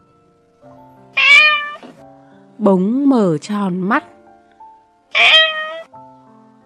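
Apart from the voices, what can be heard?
cat meowing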